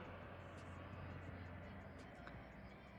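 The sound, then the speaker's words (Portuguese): An airplane rumbles overhead with a steady, broad roar and a low droning hum that holds at a constant level throughout, with no one speaking. “Mais um avião.”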